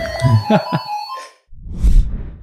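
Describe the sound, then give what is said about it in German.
An electronic doorbell rings for a DHL parcel delivery with a short burst of steady, sustained chime tones, followed after a brief pause by a soft, breathy rustling noise. “äh, Leute, kam gerade DHL-Paket.”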